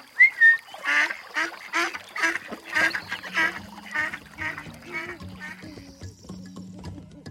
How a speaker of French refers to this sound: Eh ben, je donne de la salade aux canards comme tu viens de me l'expliquer. Allez, allez, les petits canards, venez prendre de la salade.